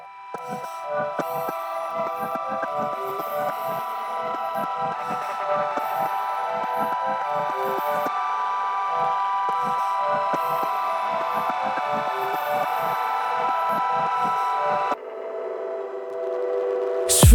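An instrumental rap song intro plays with a steady, punchy beat under sustained synth chords, no vocals yet, and the texture changes briefly near the end.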